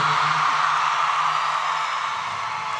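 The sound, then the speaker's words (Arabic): A large audience claps loudly and continuously for a promising new female singer, a dense wash of applause that holds steady for a few seconds and eases slightly toward the end, with no voices standing out. “عايز اسمع لها سقفة كبيرة قوي قوي قوي”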